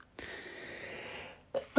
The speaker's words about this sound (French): J'imagine que tu dis à tes souhaits, donc je dirais merci.